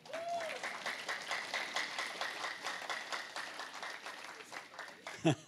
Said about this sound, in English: You can clap even though you don't know her.